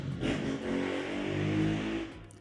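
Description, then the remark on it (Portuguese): A motorcycle engine revs outside, a steady, throaty drone whose pitch climbs and dips over a couple of seconds before easing off slightly, with no voices over it. “Eu odeio motoqueiros.”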